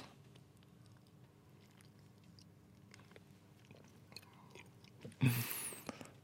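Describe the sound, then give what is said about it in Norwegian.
Quiet chewing of food dipped in blueberry jam, with small wet crunches and mouth clicks, then a sudden louder crunchy burst near the end. No one speaks. “Mye godlyder, iallfall.”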